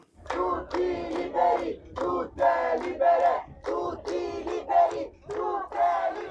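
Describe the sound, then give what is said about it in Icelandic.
A crowd of protesters at the harbour in Catania, Italy, chants "free them all" in loud, rhythmic unison, demanding that people be allowed ashore; repeated bursts of shouted syllables with brief gaps between them. “Frelsuðu þau öll, hrópaði fólkið.”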